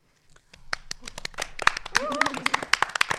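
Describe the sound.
Hands clap in a quick, irregular burst of sharp, loud smacks that build after a brief quiet start, with a short voiced sound rising briefly partway through.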